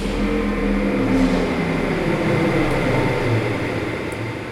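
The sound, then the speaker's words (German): A powerful fan starts up and roars steadily, blowing a sharp, constant rush of wind into a model of an open cowshed less than half a metre tall, over a deep low hum, loud with no voices. “Ein mächtiger Ventilator springt an. Scharfer Wind bläst in den offenen Kuhstall.”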